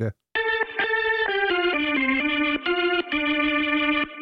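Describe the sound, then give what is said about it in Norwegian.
A short stretch of backwards-played audio: a wavering, effects-heavy melodic line of sustained tones stepping in pitch, loud and continuous for about four seconds before cutting off abruptly. “Og vi har kalt det for langkjøringsrevers. Her er det revers, altså.”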